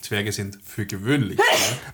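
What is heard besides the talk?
sneeze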